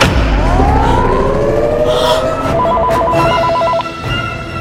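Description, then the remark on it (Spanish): A rapid electronic telephone trill rings out for about a second, layered over a loud, busy mix with rising and falling sweeping tones, like music or effects, beneath it. “¡Estoy escuchando el teléfono!”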